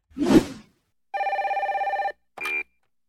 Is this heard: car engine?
no